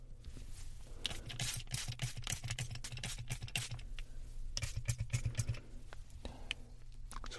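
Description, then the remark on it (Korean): Quick bursts of a Healing Bird Ultra Protein hair treatment spray being pumped onto hair before blow-drying, a rapid run of short hissy spritzes followed by a pause and another cluster, with no talking. “이거 좀 뿌려드릴게요.”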